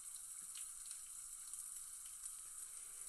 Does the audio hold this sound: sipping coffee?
no